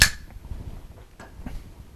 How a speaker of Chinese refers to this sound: 那我用的时候，我可能会用打火机。哎，我这边呢就有了有一个火苗，它在对面，我让它盯住水晶球里面的那个火苗。